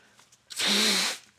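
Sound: blowing nose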